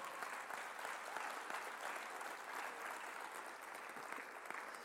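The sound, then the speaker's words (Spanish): An audience applauds for the Lord steadily for the whole stretch, a dense, even wash of many hands clapping with no pauses or voices standing out. “Creo, creo que le puedes dar un mejor aplauso al Señor que ese.”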